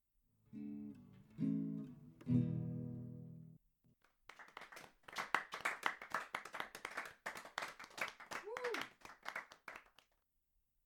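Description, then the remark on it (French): A few sustained sung notes end a woman's song, then a short pause before a small group of her friends breaks into brisk, steady applause lasting several seconds, with a brief vocal whoop partway through before it stops. “Imagine-la terminer sa chanson et recevoir des applaudissements, surtout de la part de ses amis.”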